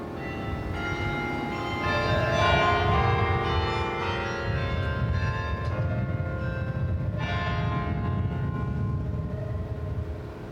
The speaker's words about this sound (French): On va évidemment laisser euh, l'auditeur profiter de ces moments de carillon, et puis, euh, puis bientôt, on devra vous donner l'heure.